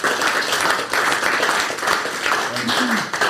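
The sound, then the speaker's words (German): A crowd claps in a dense, sustained burst of applause, steady and fairly loud throughout, with a faint voice briefly audible near the end. “Ich würde sagen, da spenden wir jetzt auch direkt mal einen fetten Applaus, weil die Bilder großartig sind.”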